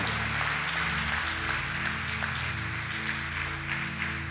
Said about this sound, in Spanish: ¿No le das un aplauso a Cristo? ¿Sabes por qué te pido el aplauso?